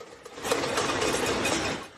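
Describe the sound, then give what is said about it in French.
In Shanghai, after a month of Covid lockdown, residents at their apartment windows bang many cooking pots at once to demand food from the government, making a dense, continuous metallic clatter of rapid overlapping strikes that stays fairly loud throughout before easing slightly at the end. No one speaks. “À la fenêtre de leur appartement, les habitants frappent sur des casseroles pour demander de la nourriture au gouvernement.”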